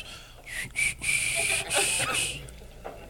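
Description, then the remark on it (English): A feeble, breathy attempt at whistling: mostly airy blowing with a faint wavering tone breaking through in short bursts, fairly quiet, with no clear melody. “It just sounds like you're lightly blowing on something.”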